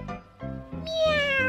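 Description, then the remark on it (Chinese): A kitten on a windowsill meows from outside the window with a rising, drawn-out tonal cry, set over a low rhythmic pulsing background, with no talking. It is fairly loud and the pitch glides slightly across the call. “喵，喵，喵！” 咦，小猫出现在窗台上。”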